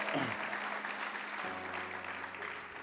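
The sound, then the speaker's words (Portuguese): An audience claps and cheers together in praise to God, a steady, dense burst of applause that fills the space, with sustained tones and voices mixed beneath the clapping throughout. “Dê um brado a Ele e aplaudo neste lugar.”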